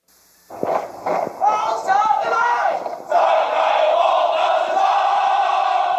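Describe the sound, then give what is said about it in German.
A large group of voices shouting together in unison, loud, with rhythmic bursts giving way to a sustained massed chant that fills the whole recording; a large formation marching in step onto a square while singing a song. “Was Sie hier hören, ist ein Ausschnitt einer Gruppe, die den ersten Platz belegt hat”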